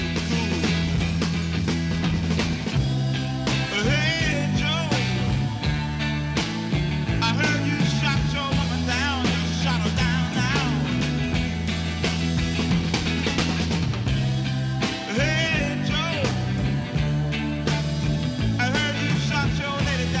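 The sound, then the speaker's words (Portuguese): A 1960s psychedelic rock song plays continuously at steady volume, with a full band of bass, drums and guitar under a sung vocal line that rises and bends. “E esse som que a gente está ouvindo agora é desse álbum,”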